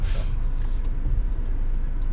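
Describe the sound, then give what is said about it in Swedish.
Steady low rumble of road noise from inside a moving car, a continuous dense drone with a brief brighter hiss at the start and no voices. “Ja, nu har vi några timmar i bil här”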